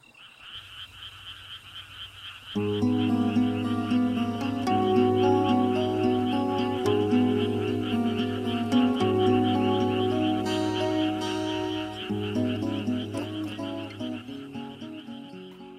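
Steady, rhythmic high-pitched cricket chirping plays alone at first, then continues underneath as a gentle music track with instruments comes in after a couple of seconds.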